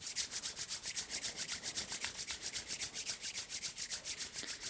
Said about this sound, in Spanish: Vas a frotar las palmas de tus manos.